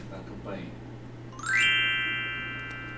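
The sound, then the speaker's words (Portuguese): After a brief murmur of a voice, a doorbell chime rings out, its bright, sustained tones lingering and slowly fading over a low, steady background hum. “Eu vou ler primeiro a frase de cima e depois toca, o toca A campainha, toca a campainha.”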